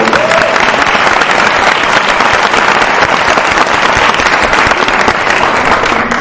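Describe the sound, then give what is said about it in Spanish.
A crowd applauds steadily for about six seconds, a dense, loud wash of many hands clapping at once with no pauses and no voices standing out. “Me un aplauso otra vez, por favor.”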